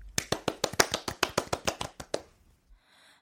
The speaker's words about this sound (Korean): 저희가 그러면 이 노래를 박수로 청해 듣겠습니다.